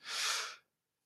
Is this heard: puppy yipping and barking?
no